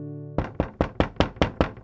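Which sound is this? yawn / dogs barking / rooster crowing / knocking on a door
knocking on a door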